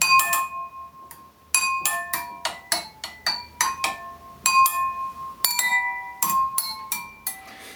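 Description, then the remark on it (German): Glasses filled with different amounts of tap water are struck with Chinese-restaurant chopsticks, ringing out in a quick, melodic sequence of bright, sustained pitched tones, clear, about a dozen nearly in-tune notes forming a simple tune with no talking. “Genau, und die Kids können dann feststellen, wie was klingt, wenn viel Wasser im Glas ist im Vergleich zu weniger.”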